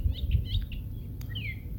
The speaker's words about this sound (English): You hear those birds? Yeah. They're not worried about the coronavirus.